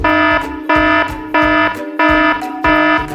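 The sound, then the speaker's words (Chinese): A house security system alarm, switched on after a wolf is seen on the monitor, blares in loud, harmonic-rich pulses. Five bursts repeat at a steady rhythm about every two-thirds of a second, with no voices present. “大野狼就到了猪老二家门口，猪老二透由监视器看到后，马上启动了安全系统，发出了警报。”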